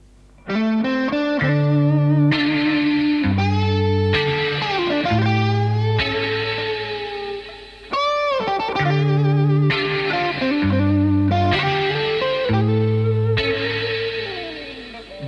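A rap song's instrumental intro plays loudly and steadily, with sustained, heavily processed synth chords over a deep bass line and a brief dip in the middle; no vocals yet.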